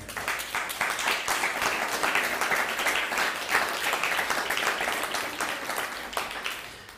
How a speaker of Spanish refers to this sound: Ahora así demos un fuerte aplauso, por favor.